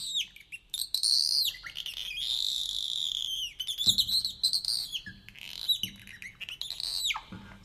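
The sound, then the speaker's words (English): A robin sings a long run of bright, high warbling phrases and quick twittering trills, one after another with brief pauses. No one talks over the song. “It's a robin bird call.”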